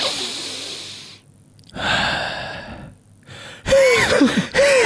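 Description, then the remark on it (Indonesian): A run of loud, rasping breaths, some drawn in with a whistling wheeze, coming in uneven bursts with short pauses between them, like someone struggling through an asthma attack. “Obengek, oh, obengek. Oh, Lagi nggak harus napas ya?”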